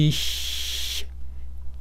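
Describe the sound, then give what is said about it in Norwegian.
A voice makes a single breathy, voiceless whispered "i" sound by pushing air without vibrating the vocal cords: a bright, steady hiss of air lasting about a second, then quiet with faint background hum. “Men istedenfor å la stemmevannene vibrere, så bare guffer en på med luft”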